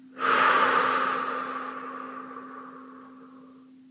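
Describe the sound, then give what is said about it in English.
A single deep, airy breath in and out starts abruptly and slowly fades over a few seconds, with a faint steady hum underneath and no talking. “Breathing in and up now, in and up, and out and down.”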